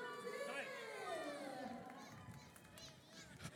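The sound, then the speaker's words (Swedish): A dense crowd roars and shouts as a running race starts and runners set off out of a stadium, with a busy wash of overlapping voices and scattered sharp noises from the runners. “Och där gick alltså starten.”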